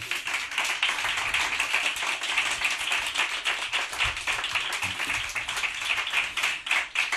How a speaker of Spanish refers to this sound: Por eso recibimos a Radio Gaga. Por eso este aplauso es para Quique Peinado y Manuel Burque.